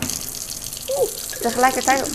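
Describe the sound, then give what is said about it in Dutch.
A hot-water tap runs with a steady hissing stream of hot water, drawn to make instant coffee, while a person murmurs and then speaks briefly over the sound. “En dan ga ik heet water uit de heetwaterkraan tappen.”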